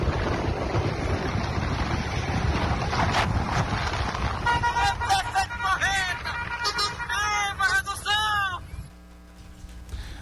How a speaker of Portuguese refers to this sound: Aí, tá buzinada aí! tá buzinada! Esse é o prefeito acirrando, meu amigo, é pesado! Nós estamos em Grajaú!